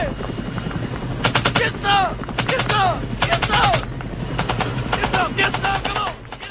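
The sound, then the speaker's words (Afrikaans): BB guns fire in quick rattling bursts during a match on the field, several volleys of rapid snapping shots, with voices calling out between and over the firing against a steady outdoor hum. “In dis het klink tydens 'n wedstryd op die veld self.”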